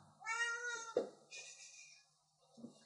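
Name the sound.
house cat meowing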